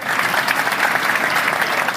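Steady audience applause for two colleagues who have just delivered a talk, a dense wash of many hands clapping at an even, fairly loud level throughout with no talking over it.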